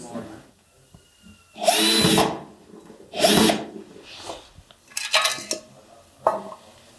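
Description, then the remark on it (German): A power drill whirs in two strong bursts of about a second each, followed by shorter, choppier buzzes and clicks of tool work, with light clattering in between, as a hinge and a padlock are fitted to secure a slider so it does not open during the drive. “Das heißt, äh, Anker macht ein Scharnier dran und äh, ein Vorhängeschloss, damit wir damit es nicht zufällig wieder aufgeht während der Fahrt.”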